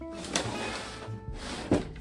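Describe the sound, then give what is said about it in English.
A lower drawer full of paper punches slides open with a rumbling scrape, a sharp clunk near the start and another heavier thunk toward the end as the paper punches inside shift. “And that's what happens to my paper punches because they're in a lower drawer there's two drawers full of paper punches.”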